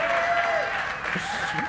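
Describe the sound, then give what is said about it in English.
Audience applause fills the moment, a dense, steady wash of clapping that stays loud throughout, with a few faint voices and a sustained tone threading underneath. “No, you, you really should be clapping for my wife on that one.”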